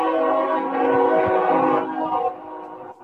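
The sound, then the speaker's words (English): A loud train horn blares late at night in a long sustained chord, steady, then fades slightly near the end as the train passes, with a low rumble underneath. “Uh, like you know, it's kind of late at night, and I've got a cocktail, and I'm sitting there reading, and it's it's it's you know it's here comes another train.”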